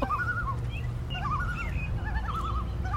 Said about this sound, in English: enjoying two common loons on the lake. July 20. Wow. I've never heard them like this before. wow.